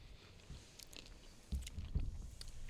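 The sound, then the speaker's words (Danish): Close-up chewing with several irregular crunchy bites, loud and near the microphone, with no talking over it. “Der var et eller andet, der knæste i den her.”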